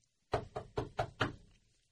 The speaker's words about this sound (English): There is a knock on the front door.